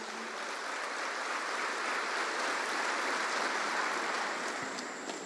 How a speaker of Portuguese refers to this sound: Aplauda o nome de Jesus.